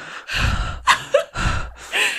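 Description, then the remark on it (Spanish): Someone imitates loud, heavy breathing, mimicking another person's breathing: four or so rough, forceful breaths in quick rhythm, a sharp gasp catching between two of them, with no talking. “Así respirando así fuerte. O sea, tu respiración.”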